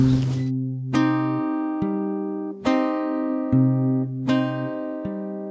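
Instrumental opening of a children's song: bright, sustained keyboard-like chords struck roughly once a second in a steady rhythm over a held low note, with no singing yet.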